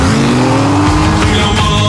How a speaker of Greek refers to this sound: Θα κάνουμε έναν ελιγμό να τους ξεφύγουμε η φόρμουλα που μας κυνηγάει. Κάτσε και θα δεις.